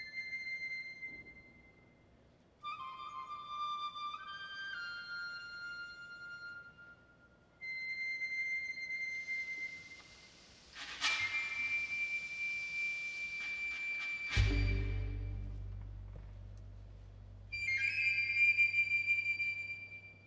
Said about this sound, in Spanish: Esta parte eh, está dedicada a Ometeotl, dedicada específicamente solo a él. Por eso es un, un solo de flauta únicamente.